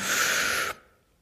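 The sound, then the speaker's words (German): A single deep, airy inhalation drawn in for under a second during a breathing exercise, hissy and strong, then cutting off abruptly into near silence. “Wenn es wieder notwendig wird zu atmen, einen tiefen Atemzug nehmen”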